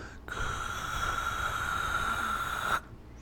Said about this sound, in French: Ou sinon, achète-toi un générateur de white noise qui va juste faire ce sympathique bruit de fond-là.